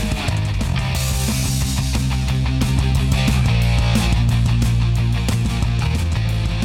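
A freshly mixed new full band track from a new studio in Dresden plays loudly and continuously, with a steady beat, heavy bass and dense layered instruments filling the whole clip, no voices over it.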